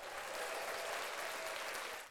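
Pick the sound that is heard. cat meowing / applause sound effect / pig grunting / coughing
applause sound effect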